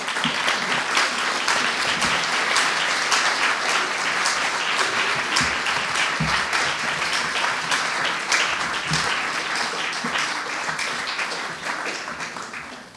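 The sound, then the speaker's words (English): A crowd claps steadily for about thirteen seconds, a dense, even wash of many hands at a loud, sustained level that tapers off slightly at the end: an audience at a Pin Drop storytelling event applauding a storyteller after his story. “Um, can we, I think we should all give you a round of applause after that last thing.”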